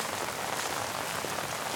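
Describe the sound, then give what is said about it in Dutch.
Heavy rain pours down steadily, a dense, continuous hiss of drops spread across the whole range, loud with no pauses and no voices. “Het is heel hard aan het regenen als ik bij haar op bezoek ga.”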